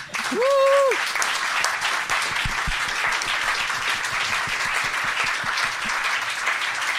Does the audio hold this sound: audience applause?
yes